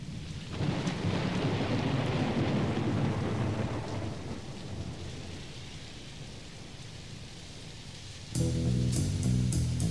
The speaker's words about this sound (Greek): αρκεί να φανταστούμε την χειρότερη καταιγίδα που έχει καταγραφεί στην ανθρώπινη ιστορία.